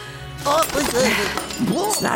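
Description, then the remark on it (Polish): Glass Christmas ornaments crash and shatter in a loud burst of breaking and tinkling, with voices talking over the clatter. “A adventné kule padną dele a so rozbija.”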